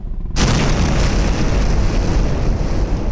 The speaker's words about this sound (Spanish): Los dos primeros eh, fueron misiles. De esos misiles tal vez fueron seis explosiones, más o menos.